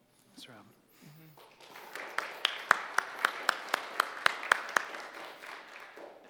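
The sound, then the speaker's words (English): An audience starts clapping after a few brief spoken sounds. The applause swells into a steady crowd noise with sharp, evenly spaced rhythmic claps on top, then fades out. “It took like a couple of people to warm up the clapping, but you guys did just as well.”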